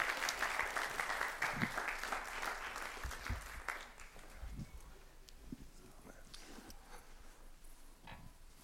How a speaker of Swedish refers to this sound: Varsågod och sätt er så ska vi hälsa välkommen våra vänner från Gideoniterna. Ska vi ge dem en applåd? Välkomna fram.